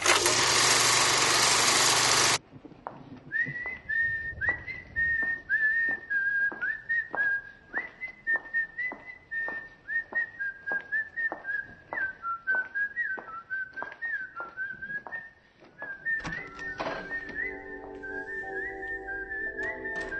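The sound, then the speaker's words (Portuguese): A loud burst of noise gives way to a clear, melodic whistled tune from a scene in the film Kill Bill, where a nurse comes along whistling in a hospital. The tune carries on steadily for about seventeen seconds, with a faint rhythmic pulse underneath and a low hum joining near the end. “Quando vem, né, ela subiando.”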